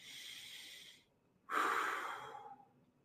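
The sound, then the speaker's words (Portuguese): A deep breath taken with eyes closed during a guided visualization: a long airy inhale, a brief pause, then a fuller, louder exhale that slowly fades out. No one speaks. “E fechando seus olhos, respirando uma vez”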